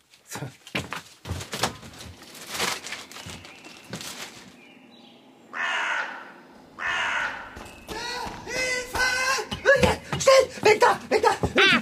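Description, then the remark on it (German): Harsh, rasping caws from a hooded crow sitting on the trash bins, tilting its head and raising its wings as it caws at a person. Several loud calls are mixed with sharp thumps and knocks in the opening seconds, then a busy burst of scratchy bird noise toward the end. “Ich habe ihr ganz freundlich zugeredet und sie hat den Kopf schiefgelegt, die Flügel angehoben und mich angekrächzt.”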